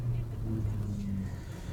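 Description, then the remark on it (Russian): A car with a 1.8 engine and a robotized gearbox runs hard at high revs with the throttle floored and the tachometer in the red, a loud, steady droning hum holding its pitch without pause for the whole moment. “Газ в пол, обороты улетели.”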